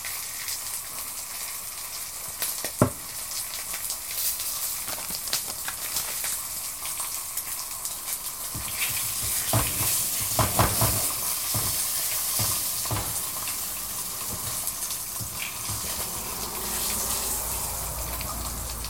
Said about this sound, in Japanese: 波形見てるのもこれ面白いなっていうのがあって、さっき結構ババチバチっていうか、焼けてる音してた時の半分ぐらいまで今、うん。波形縮まってる。